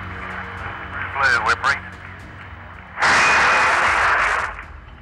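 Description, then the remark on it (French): A tinny, radio-filtered voice transmission from the lunar module Eagle at Tranquility gives way to a sudden loud burst of applause in mission control after the moon landing on 20 July 1969, a dense wash of clapping that lasts over a second before fading. “Vous entendez ici l'applaudissement.”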